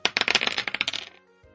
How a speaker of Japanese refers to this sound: では、サイコロ振ります。コンコロリン。